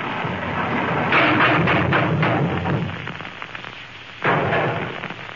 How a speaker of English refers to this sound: What was that? The left wing fell off. Do we need it? Yes, I'll have to fix it.